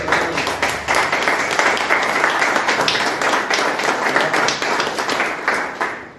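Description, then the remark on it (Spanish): An audience applauds steadily for about six seconds at a recording of La Taberna, a dense, loud wash of many hands clapping at once with a fairly even level throughout and no speech over it. “Un aplauso el día de hoy.”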